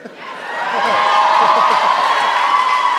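An audience breaks into cheering and applause, swelling over the first second and then holding loud and steady, with shouts and whoops riding over a dense wash of clapping.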